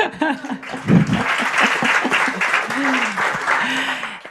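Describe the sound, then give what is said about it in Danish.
A steady patter of applause fills the whole clip, a dense crackle of clapping hands, with voices and a bit of laughter running over it. “Ej, det skal vi da lige klappe af.”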